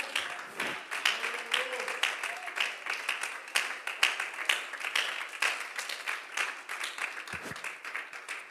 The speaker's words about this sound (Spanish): Un aplauso de gratitud para Él.